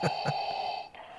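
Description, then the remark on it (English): A Darth Vader novelty bottle opener, used to crack open a beer, plays a raspy, mechanical breathing sound through a small tinny speaker, with two quick breath pulses over a steady electronic drone. Moderately quiet, with no talking. “Sorry, I don't know if you can hear my Darth Vader um, bottle opener in the background.”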